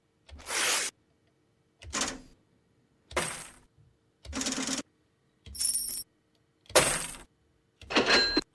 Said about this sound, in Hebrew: אז כשהוא חיפש את הסאונדים האלה, איך להקליט אותם, הוא הלך לסטודיו שלה, ושם אה, קרע חתיכת נייר, או זרק אה, מטבעות לתוך סל.